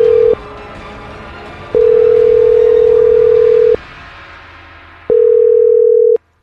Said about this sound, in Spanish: Vamos a marcarlo otra vez.